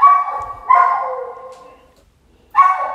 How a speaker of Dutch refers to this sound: Het is bang. Bang. Dat is eh, een hond bang is om, eh, om alleen te zijn.